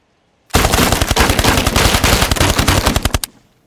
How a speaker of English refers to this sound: Where was the gunfire coming from? And just as you say that,